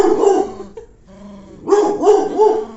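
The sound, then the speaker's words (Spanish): A small dog barks and yips in short, high-pitched bursts, with a brief whiny pause before a rapid run of several more sharp barks; it is barking because it wants to be here with its owner. “A una la traigo en mis brazos porque está chiquita y la otra está ladrando porque quiere estar aquí.”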